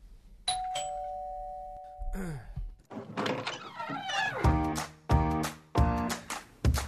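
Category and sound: household object, door opening and closing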